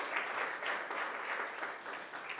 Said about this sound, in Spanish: Démosle un aplauso al Señor. Este es un aplauso enorme para Él.